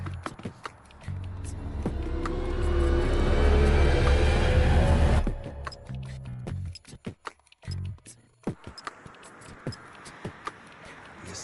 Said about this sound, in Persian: صدای ماشین داره میاد ماشین؟ آره. ماشینی نیست چرا هرکی میگی؟ باور کن یه صدا داره میاد آره آره یکی داره میاد